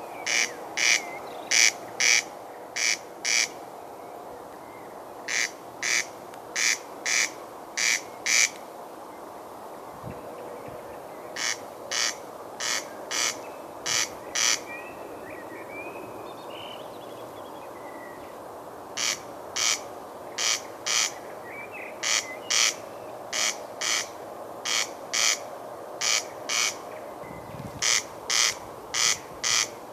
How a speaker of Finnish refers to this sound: sitten tuli vähän yleisöä ja rääkät yrittivät olla nuorten naisten kanssa kilpasilla – mutta sitten kello 22 tilanne rauhoittui sen verran, että sain tällaisen pienen taltion aikaiseksi.